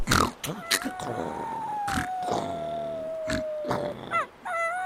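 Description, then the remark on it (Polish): A wet, lonely puppy sitting under a tree whimpers, a thin, high whine drawn out for several seconds and slowly sinking in pitch, broken by short snuffling bursts and ending in a few quick, wavering cries. “Pod štomom je samlutki a mokry psyčk.”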